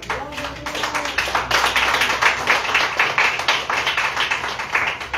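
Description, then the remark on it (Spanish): A church audience claps their hands for Jesus Christ during a sermon in a steady, sustained round of applause, dense and fairly loud, with a faint voice briefly audible at the start. “Cuando le quita palmas a Jesucristo.”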